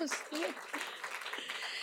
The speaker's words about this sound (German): Ja, und vielen Dank. Die, die Erläuterung, das verdiente Applaus